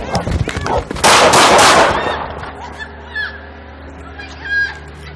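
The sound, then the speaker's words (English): Gunshots fired by an Arlington, Texas police officer at a charging dog in a 2019 fatal shooting of a woman: a rapid burst of several loud, sharp cracks lasting about a second. It follows a raised voice and gives way to faint, high yelping cries over a low hum. “Two forty three shots fired.”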